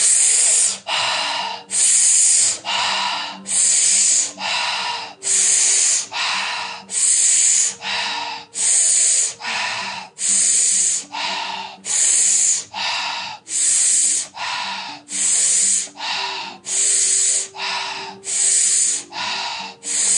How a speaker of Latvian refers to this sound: Dziļi ielpa, izelpam visu gaisu ārā un sākam elpot ar muti.